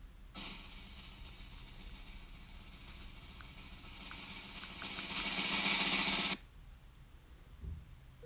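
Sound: drum roll sound effect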